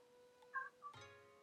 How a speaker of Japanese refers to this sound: なんかうちの猫が鳴いております